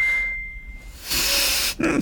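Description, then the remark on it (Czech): A phone's message notification rings out as a single clear, high electronic ding that holds for a moment and fades, followed by a broad burst of hissy noise. “to, no to jsme si zapomněli říct, že se vypínají telefony, ale to je v pohodě.”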